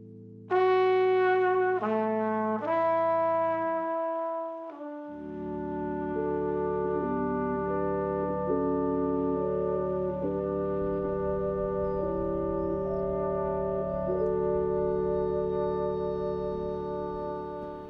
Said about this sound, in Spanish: Vamos a escuchar esta canción, …, que salió en su nuevo disco ….